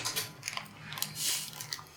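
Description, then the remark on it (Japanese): Crunchy organic flavored nuts, made without white sugar or salt and bought from a newly opened nut shop, being chewed: a run of crisp, irregular crackling bites with bright, noisy bursts repeating for a couple of seconds, fairly quiet and with no talking over it. “そう、これは、疲労に新しくできたナッツ屋さんで、あの、完全にオーガニックで、白い砂糖とかそういうの、白い、あの、お塩も使わないし、でフレーバーナッツですっごい美味しいのこれは”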